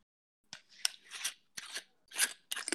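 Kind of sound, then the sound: household object, whisky bottle being opened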